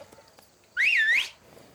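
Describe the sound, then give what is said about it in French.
A young man puts two fingers in his mouth and lets out a single loud, piercing whistle toward wedding guests, swooping up then dipping and rising again for about half a second, with near silence before and after. “Il ne me répondit pas, mais se tournant d'un coup vers les gens de la noce, il fourra deux de ses doigts dans sa bouche et tira un formidable coup de sifflet.”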